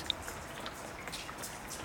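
Rain drips softly from a house roof outdoors in autumn, with scattered individual drops tapping over a faint, steady wet hiss. It sounds quiet, and no one speaks.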